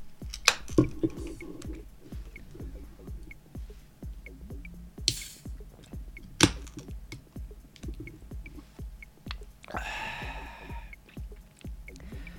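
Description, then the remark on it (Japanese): Someone drinks a canned Super Dry beer from a free vending machine, with a sharp crack and brief fizz early on, wet sips and swallows, and a longer fizzy hiss near the end, all over faint steady clicking. “今回スーパードライにしてみましたやったいただきますいただきます人からもらったアマゾンのギフト券でビールを飲みます”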